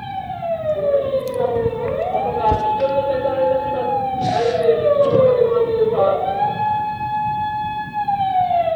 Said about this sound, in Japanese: すごい今ちょっとですね、横に覆面パトカーが来ていて、びっくりした。収録してたら 捕まんのかと思った。